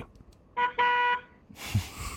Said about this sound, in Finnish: Ja me ollaan täällä kanssa tööttäilemässä mukana.